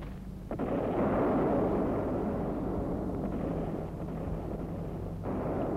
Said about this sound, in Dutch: Uit de richting Brest komt het geluid van vliegtuigen en bominslagen. Het schijnt er hard toe te gaan.